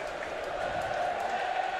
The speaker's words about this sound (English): Eastleigh moving it around in the middle as the Wrexham fans are making brilliant noise.